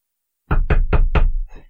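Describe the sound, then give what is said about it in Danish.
Four quick, solid knocks on the wooden door of a beekeeper's home in an even rhythm, loud, with a short rattling tail after the last one. No voices. “Og så stansede man drillen der, og hoppede af, og gik hen og bankede på døren.”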